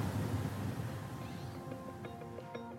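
A juvenile white-crowned sparrow practices its song in the background: faint, halting tonal notes and short warbles over a steady outdoor hiss, growing clearer toward the end.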